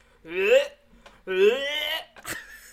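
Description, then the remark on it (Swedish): A person imitates retching, making two drawn-out, strained gagging heaves followed by a short, sharp choking burst at the end, mimicking a man gagging in a toilet while changing a baby's dirty diaper. “Så jag var tvungen att larma på personal för att Pontus slutade inte hulka”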